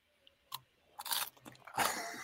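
Crunchy chewing: a sharp bite followed by several loud, crackling crunches in uneven bursts, growing denser toward the end, with no talking.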